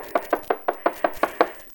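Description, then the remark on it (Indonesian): Someone knocks on a door about eight times in a quick, steady rhythm, each rap sharp and evenly spaced, clearly heard with no voices. “ini ibu nak. Buka pintunya.”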